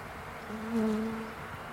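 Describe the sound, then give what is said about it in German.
Bees buzzing in a flowering tree full of bees: a steady low drone swells as one insect passes by, then fades back into a soft, even hum. “es ist da ein Summen zu hören. Also überall, der ganze Baum ist voller Bienen.”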